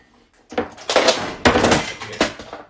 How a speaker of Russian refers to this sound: Так, у меня тут упал, упала зарядка.